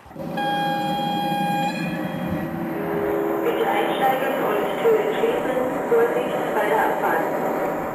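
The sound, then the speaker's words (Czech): A miniature garden railway train, with locomotives running across half the garden, runs past with a steady rumbling clatter, opening with a sustained whistle tone that fades after a couple of seconds, while faint voices murmur in the background. “Vlastně přes půl zahrady máme lokomotivy.”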